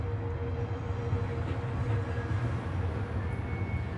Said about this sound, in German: Der Zug setzt sich in Bewegung. Es geht los.